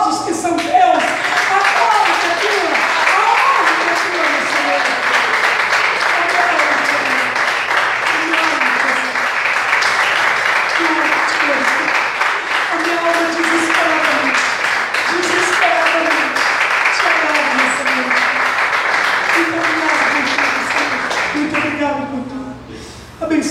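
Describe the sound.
An audience applauds steadily for over twenty seconds, a dense, even wash of clapping that only fades at the very end, with voices calling out and talking beneath it.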